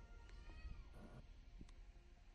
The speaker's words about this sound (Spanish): Miau. Miau. Che gato.